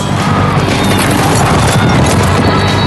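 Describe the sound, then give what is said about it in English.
A loud, dense thunder of many racehorses' hooves as they break from the starting gate into a gallop at a horse race, the pounding rumble continuous throughout, with no voices. “horses are at the gate.”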